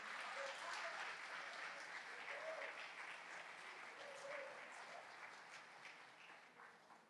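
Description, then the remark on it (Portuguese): An audience at an evening church service applauds the name of Jesus, a dense, steady wash of clapping that holds for about seven seconds before tapering slightly at the end, with a few faint voices mixed into the noise. “Dê um aplauso forte ao nome do Senhor Jesus.”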